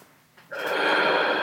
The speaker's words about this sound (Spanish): Entonces, si estáis en una etapa de mucho estrés, cerrar los ojos, comenzar una, respiración consciente, como se le dice, que es inhalar por la nariz